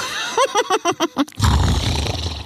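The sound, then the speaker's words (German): A crowd of animals roaring in cheer: a quick rhythmic run of about seven short, pitched calls, then a loud, rough, sustained roar of many creatures that carries on to the end. “rief Aisha und die Tiere jubelten.”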